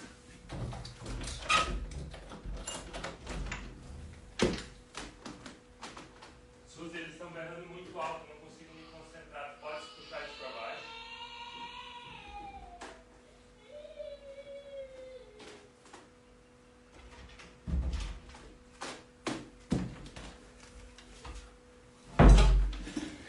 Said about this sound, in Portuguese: Enquanto isso, eu vou sair rapidinho porque os meus filhos estão fazendo uma bagunça ali. vou ter que fechar a porta, senão eu não consigo me concentrar, tá?